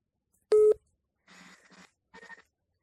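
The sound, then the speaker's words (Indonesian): A single short, loud electronic chime from a phone connecting to its charger, followed by two quieter, muffled bursts of sound. “Enggak, itu tadi suara baterai gua.”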